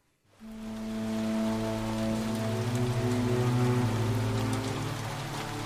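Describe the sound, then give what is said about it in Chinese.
Spring rain pattering down steadily, a dense hiss of drops with scattered sharper taps, starting after a brief silence and holding at an even volume, with a low sustained hum underneath. “春雨刷刷的下着，透过玻璃车窗看去，秦岭西部太白山的远峰和松坡，渭河上游平原上的竹林、村庄和市镇，都笼罩在茫茫的春雨中。”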